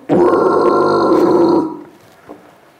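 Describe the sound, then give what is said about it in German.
A loud, sustained guttural growl lasting about a second and a half, a vocal scream technique made by drawing out a throat-clearing with the tongue placed up in the mouth, raspy and throaty, cutting off and leaving a faint trailing breath. “und dann zieht man das Räuspern so lang.”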